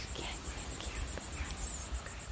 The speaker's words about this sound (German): Die Luft war noch immer warm und erfüllt vom Zirpen der Zikaden.